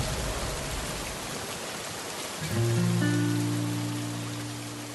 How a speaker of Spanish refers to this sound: De la nada, comienza a llover. Mierda de ciudad o son los trancones o la inseguridad o la lluvia.